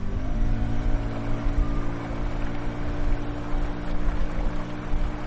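A shared wooden passenger boat motors along the Amazon River toward Santa Clara del Ojeal, its engine a steady, low, droning hum layered with a constant wash of wind and water noise. No one speaks.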